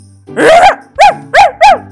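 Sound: sheepdog barking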